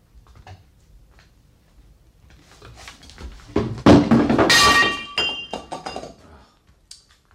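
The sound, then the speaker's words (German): An expensive, original Chinese china vase shatters with a sudden loud crash, followed by a brief scatter of bright, ringing clinks as the pieces settle and fade, with only faint rustling before it. “Das wird Sie aber eine Kleinigkeit kosten. Die Vase war teuer. Original China.”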